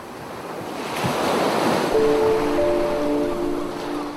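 Small waves wash gently onto a sandy shore, leaving foam that slowly dissolves, a soft continuous surf that swells and recedes, with faint tonal calls of gulls circling over the water drifting in partway through.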